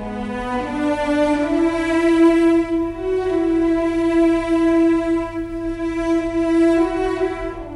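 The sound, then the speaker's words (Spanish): Cellos play a slow, sustained bowed melody, the rich low tones gliding from note to note at a steady, fairly loud level with no talking. “Aquí vienen nuestros amigos los violonchelos.”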